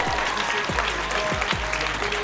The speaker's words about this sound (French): Le public d'Hérouville, meilleur que le public de, du Havre, d'ailleurs t'applaudis. tu commences direct. Non mais regarde, ils vont t'applaudir encore très fort.